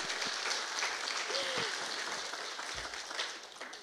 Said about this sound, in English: I mean, I went overtime, so I don't deserve your applause.